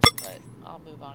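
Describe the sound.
A small sword drops close by with a sharp, bright metallic clink and a quick second rattle as it settles, followed by a person talking.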